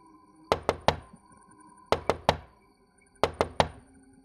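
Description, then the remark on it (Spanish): Three groups of three sharp knocks on a wall, coming from the room on the other side, evenly paced, each group separated by about a second of quiet. The hollow raps are fairly loud against a faint background hum. “Unos golpeteos en mi pared desde el otro lado. Como quien toca la puerta, como si quisieran llamar mi atención.”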